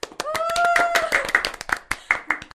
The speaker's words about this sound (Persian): پس اگه اینطوری یک کف مرتب برای خودمون بزنیم همراه با جیگ و هورا و سایر مخلفات